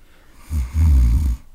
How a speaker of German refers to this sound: Ähm, hast du das eigentlich schon aufgenommen, dieses Schnarchen